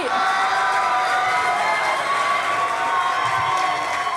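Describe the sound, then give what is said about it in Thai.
A large crowd screams and cheers continuously, a dense, loud wall of high-pitched shrieks that stays steady for the whole stretch, with no clear speech over it. “เอาละมันจะกินเวลาต้องเสียงกรี๊ดเนี่ยแหละนะ”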